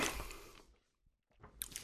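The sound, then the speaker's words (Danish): Moist chewing of a bite of an æbleskive pastry, with squishy mouth sounds that fade into a brief pause before a few more crunchy bites and chews. No one speaks. “Jeg tager lige en bid af min æbleskive.”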